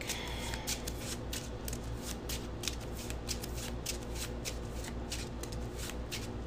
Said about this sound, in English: Let's shuffle the rest back in my deck.